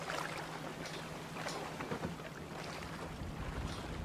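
Steady rushing wash of waves and soft light wind aboard a sailboat, with a low constant hum underneath and occasional brief gusty swells, continuous throughout.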